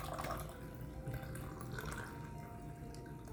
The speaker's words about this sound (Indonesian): Terdengar suara air mengalir. Tuangan kopi yang anyep. Seperti kopi di malam takbiran di masjid.